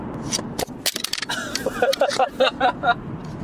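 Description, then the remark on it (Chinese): A recording device drops to the floor with a quick burst of sharp, loud knocks and clatters, followed by rustling handling noise as voices start talking. “我刚录音设备掉地上了，嗯，放回去录。”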